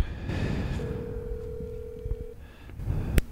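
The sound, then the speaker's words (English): A telephone call being placed: one long, steady electronic ring tone holds for about a second and a half over low background hiss, followed by a sharp click near the end. “It sounds like you're calling them.”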